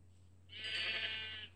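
A single sheep bleat in a video game, drawn out for about a second and fairly loud, rising over a steady low background hum with no talking.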